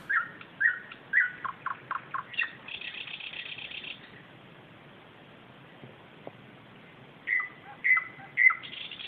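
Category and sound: bird, common nightingale song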